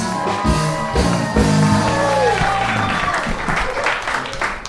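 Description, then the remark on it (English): An audience applauds steadily as comedian David Lucas is introduced, with whoops and cheers rising over the dense clapping. The noise stays loud and full for about five seconds, with a few voiced shouts mixed in early. “Make some noise, people.”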